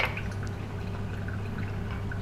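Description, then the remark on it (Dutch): Water pours steadily into a container for a couple of seconds, a continuous trickling splash over a low background hum, with no one speaking. “Ik ga water bij de Mercedes doen.”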